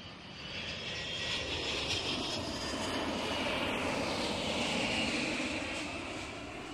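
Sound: airplanes flying overhead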